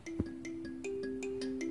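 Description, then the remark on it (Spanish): Phone notification alerts chime with no one talking: a steady electronic tone that steps up in pitch partway through, marked by quick, evenly spaced pulses at moderate volume. “Ay, permítanme, es que voy a desactivar el lo de las notificaciones porque ya me están llegando.”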